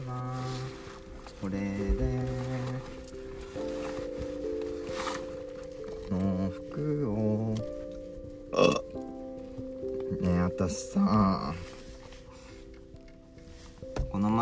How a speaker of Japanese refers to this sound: ルフィちゃんにさ電話越しでゲップしたらすごい匂いがきついって言われたんだけどラジオ聞いてる人大丈夫ですかなんか心配です